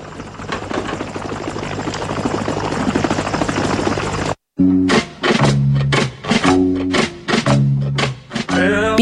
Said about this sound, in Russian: Мы сейчас едем к месту, где снимали кадры из Мимино, когда Валико прилетает в деревню, садится, сажает свой вертолет э, на аэродроме.